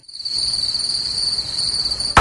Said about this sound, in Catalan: M'ha aparegut uns grills.